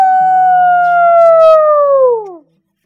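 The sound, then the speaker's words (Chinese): A young rooster lets out one long, loud crow, holding a steady high, brassy pitch for about two seconds before sliding downward and cutting off into silence. “在一片寂静中，皮迪克用尽了生平所有的力气，昂首向天空中发出最大的鸣叫：“ 咕咕哦！”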